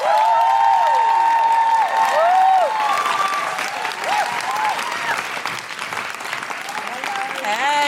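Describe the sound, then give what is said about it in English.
A crowd applauds loudly and steadily with whoops and cheers on top, welcoming a speaker as she is introduced. The clapping is dense and sustained throughout, with high vocal shouts rising and falling over the noise. “Put your hands together and make incredible noises”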